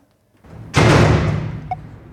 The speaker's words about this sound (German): Ja, die Tür ist jetzt zu. Ja, und wir stecken in der Rakete.